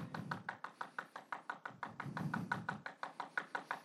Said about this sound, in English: Keep on knocking until the door is actually opened or until God says, seriously, stop knocking on my door to go try another one.